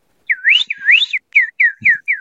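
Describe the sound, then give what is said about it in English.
A person whistles an imitation of songbirds, clear: two rising, warbling sweeps, then four short falling chirps in quick succession, with no talking. “you can hear all the songbirds going nuts.”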